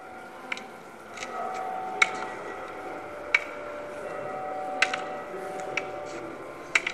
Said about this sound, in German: Das letzte Geräusch ist ein Klopfen, der Museumsführer erklärt Zion, dass es sich dabei um das Geräusch eines Gehstocks handelt, den blinde Leprapatienten als Hilfe verwendeten.